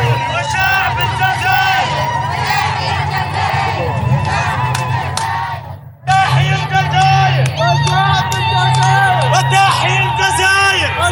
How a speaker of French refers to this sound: Euh, vive l'Algérie, euh, etc. Donc c'était la fête. C'était tout le monde était dehors, les klaxons, les drapeaux, les, etc. C'était la, la liesse populaire.